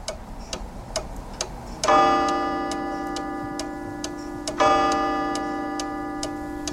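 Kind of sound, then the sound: household object, studio clock ticking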